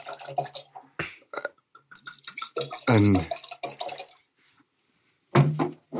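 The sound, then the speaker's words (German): Wine, a Monsirol Grand Cru from the Romandie region of Switzerland, splashes and gurgles as it is poured into glasses, with a louder burst of pouring partway through, while people talk before and after. “Ich habe ein, äh, ein Lied aus der Romandie mitgenommen, Monsirol Grand Cru.”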